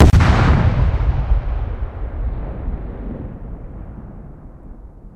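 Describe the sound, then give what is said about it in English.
A single heavy ANFO explosion bursts at medium distance, its sharp onset giving way to a deep, rolling rumble that slowly fades over several seconds with no voices present. “you have these three elements the character element, the distant and medium distant version for each of those explosions”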